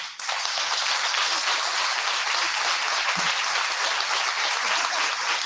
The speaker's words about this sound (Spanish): Así que un aplauso muy grande para ellos.